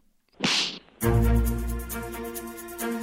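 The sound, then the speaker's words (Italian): A quick swishing whoosh ends in a sharp, loud slap sound effect, which launches straight into a bright jingle with a steady pulsing beat, opening a weekly segment. No one speaks. “ovvero lo schiaffo della settimana.”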